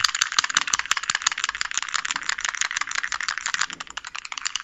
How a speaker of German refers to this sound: Wie viel an einem Holzwürfel kaputt gehen kann. Man wundert sich ja. Nicht der Würfel ist kaputt gegangen, die Kiste drumherum. Ja, ja, ist mir schon klar. Dann würfel doch einfach mal.